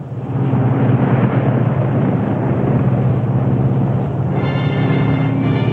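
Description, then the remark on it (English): Propeller engines of a Constellation airliner drone steadily in flight while running on only two engines, a loud, continuous roar with a low throbbing hum that holds level throughout, no voices present. “Look at that, on two engines. Pairing along just like a kitten.”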